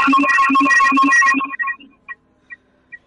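A phone ringtone plays a bright, repeating electronic melody for about a second and a half as a live show on Rap Mallorca places a call, then cuts off, leaving a few faint, sparse beeps trailing after it.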